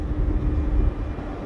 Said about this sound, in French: C'est un train qui entre au hangar, ça C'est ça. Donc là, on a fait un changement de voie pour mettre le train sur nouvelle installation.